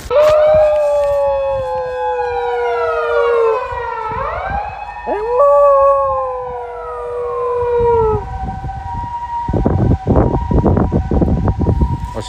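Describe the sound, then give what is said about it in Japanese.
A loud ambulance siren wails with rising and falling tones, then stops partway through, leaving gusty wind and rumbling road noise. It is recorded while heading home as sleet-like snow blows sideways. No one speaks. “今日は救急車多いね”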